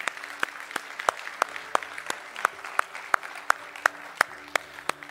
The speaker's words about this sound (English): Well, friends, I saw three hands go up. Can we just applaud those three who received?